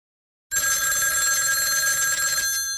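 An old-style telephone bell rings loudly and continuously, a bright metallic jangle that starts abruptly after a short silence and rattles on for about two seconds with no voices.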